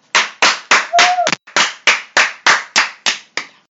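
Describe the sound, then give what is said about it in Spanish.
Applause for a programme contributor on Pride day, in a steady rhythm: about a dozen loud, sharp claps, each with a short trailing tail, evenly spaced roughly three per second, with no voices. “así que un fuerte aplauso para ella y escucharla, que fue interesante.”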